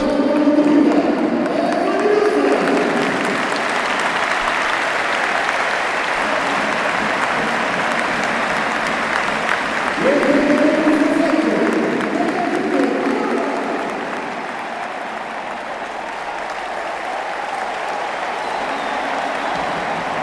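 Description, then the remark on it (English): A large stadium crowd at a football match against Porto applauds and cheers after a goal by Luis Diaz, in a dense, continuous roar during stoppage time, swelling briefly midway with some rising voices before settling to a slightly quieter, steady din. “They're just revving up the fans there as they try and close out stoppage time.”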